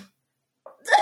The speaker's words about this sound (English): bless you